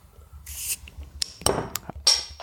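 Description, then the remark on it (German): A bottle of Schneider Weisse Hopfenweisse beer is opened with a sharp hiss, followed by a few glassy clinks and the foamy fizz of the beer being poured, with no one speaking. “Ich habe ein bisschen Angst, dass es hier überläuft.”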